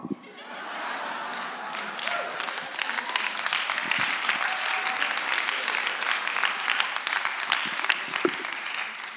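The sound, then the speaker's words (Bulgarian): An audience applauds steadily for several seconds, a dense wash of many hands clapping at even loudness, with a few scattered chuckles mixed in. “Аз дори не очаквах да има ръкопляскане, но това беше ръкопляскане.”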